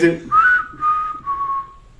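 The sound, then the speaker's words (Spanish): Someone whistles an imitation of a cricket chirp: three connected, wavering mid-pitched bursts that drift slightly lower and fade away, after a brief murmur at the start. “Eh, como el grillito, pero ese no suena grillito.”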